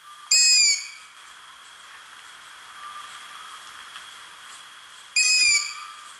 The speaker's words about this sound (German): Ein guter Punkt, um auf die Waldeule aufmerksam zu werden, ist, wenn sie Junge hat, also Ästlinge, und wenn die dann rufen. Der Ruf ist nämlich ganz, ganz markant. Ich spiele ihn euch mal ab.